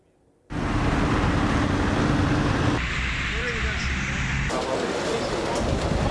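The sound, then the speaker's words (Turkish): A dense, continuous roar of heavy road traffic, roads full of cars, especially small vehicles, starts abruptly and stays loud throughout, with vehicles streaming past and the sound shifting slightly in character partway through. “Valla yoğunluk görüyorsun araba doludur.”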